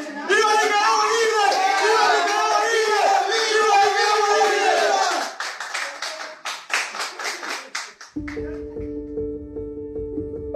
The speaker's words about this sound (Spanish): Hay un montón de gente, familiares, amigos, periodistas. Un grupo de los escarcelados se junta en media sala y grita.